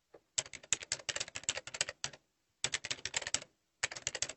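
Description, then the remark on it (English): Rapid keyboard typing in an internet cafe comes in three bursts of sharp, crisp clicks, separated by short pauses, with no voices. “I'm in an internet cafe with my friend Carmen.”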